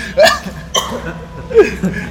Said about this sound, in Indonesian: Batuk dulu, batuk dulu, batuk dulu.